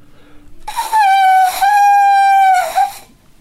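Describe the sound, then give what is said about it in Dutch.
A shrill, sustained whistle made of wood is blown, a steady reedy tone with rich overtones, briefly broken in the middle, then sounding again before stopping. No one speaks. “Dat is een vroegere fluitjeshout of promschieters worden ervan gemaakt.”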